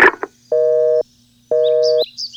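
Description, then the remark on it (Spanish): A telephone tone after a hung-up call: two steady, loud half-second beeps with a pause between, like a busy signal, following a brief clatter at the start, with faint chirps at the end. “Me, colgaron y no tendré mi podadora máquina de ataque XTP 10000 si no colaboro con los animales.”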